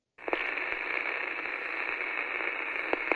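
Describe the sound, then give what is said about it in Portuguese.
A steady hiss of radio static fills the whole stretch, band-limited and crackly like a lost broadcast from an interrupted signal, with a couple of brief clicks near the start and end. No one speaks. “Nosso sinal foi interrompido por Draculoides e infelizmente tivemos que encerrar nossa transmissão.”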